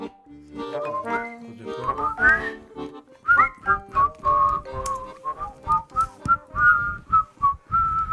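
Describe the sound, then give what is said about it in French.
Someone whistles a shaky, off-key little tune, breathy repeated notes that wobble in pitch, after a brief muddled stretch of tones at the start. No one speaks. “On sature, on siffle mal, c'est la midinale de Radio Piquet de ce 13 mars 2023.”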